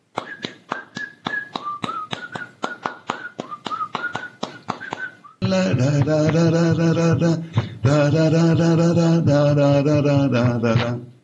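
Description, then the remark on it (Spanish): A man whistles a wandering tune over steady, rhythmic tapping for several seconds, then a louder, fuller burst of music takes over and drowns it out. “Era una canción de mí mismo la voy a chiflar, ¿se puede?”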